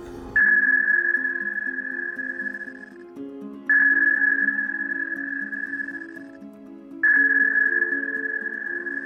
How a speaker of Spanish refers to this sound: el sonar es como una megabocina, pero muy apuntada y muy fuerte. Entonces, cuando mandas el eco del sonar directo al, casco del submarino, rebota en el casco y es como si alguien le diera un martillazo al casco.